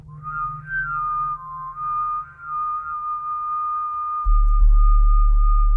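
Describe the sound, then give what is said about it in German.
Ice instruments playing, with icicles blown and ice plates struck: a steady, whistle-like blown tone with a slight waver sustains over a low hum, then a deep booming resonance swells and a single sharp strike rings out near the end. “bläst in Eiszapfen, schlägt auf Eisplatten und streicht an ihnen.”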